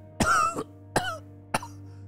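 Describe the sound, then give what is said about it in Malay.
A man turns away from a garment he was sniffing and coughs: three distinct coughs, a longer, harsher first cough followed by two shorter, sharper ones at roughly half-second gaps, over a faint steady low hum and with no talking. “Dan tiba-tiba dia memaling ke arah lain lalu terbatuk”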